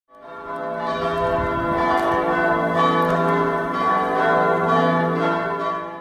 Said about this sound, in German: Das Glockengeläut des Liebfrauenmünsters mitten in der Altstadt von Ingolstadt.